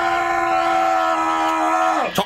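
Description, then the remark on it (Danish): A man at a tapir enclosure shouts at a young tapir in one loud, long, sustained cry held steady for about two seconds, then his voice drops and breaks off abruptly. “Du, du har bare råbt.”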